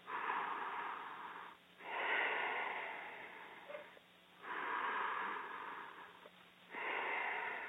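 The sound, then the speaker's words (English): Slow, steady yogic breathing with a soft, ocean-like hiss in the throat, four long breaths alternating in and out with brief pauses, fairly quiet with no talking. “And the idea of making that little sound is that you bring your attention to the sound and you just follow the sound.”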